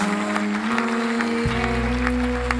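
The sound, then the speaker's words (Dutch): Steady clapping fills the short stretch, a dense crowd-like applause at moderate volume with a low, sustained hum droning underneath. No one speaks. “Geef een hartelijk applaus.”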